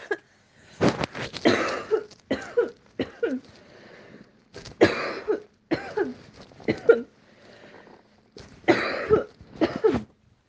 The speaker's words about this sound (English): once you cough it all out all the bullshit inhale the good shit exhale the bullshit